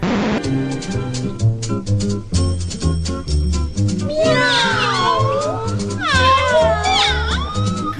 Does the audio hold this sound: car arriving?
no